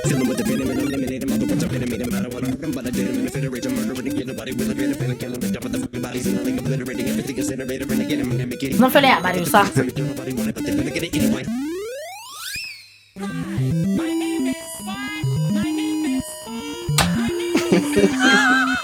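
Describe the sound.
A rap song with fast vocals clashes against layered Super Mario video game music, turning chaotic; near the end a rising sweep gives way to bright, blocky chiptune melodies.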